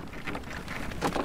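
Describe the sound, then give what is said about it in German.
Light rain falls steadily, a soft, even patter with faint scattered drops, fairly quiet, with no voices, at a harbour basin as passengers in rain gear board a peat boat. “Wenn es nachher mal mehr regnen sollte, habe ich so Regenponchos hier, die gebe ich dann aus.”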